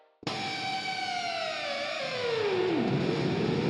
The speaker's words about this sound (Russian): Вообще, это ручка, которая создана для понижения тона. Она способна наклонять струны таким образом, что тон извлекаемого звука становится ниже. Э, и, как правило, этой ручкой пользовались примерно вот так.